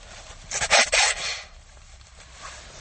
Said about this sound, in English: I gotta blow my nose here, guys. I'm so sorry. I don't feel like pausing.